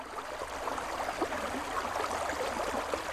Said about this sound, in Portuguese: É com determinação e alguma doçura que este riacho invade a aldeia do Xisto de Cerdeira, presa pelo corpo à Serra da Lousá.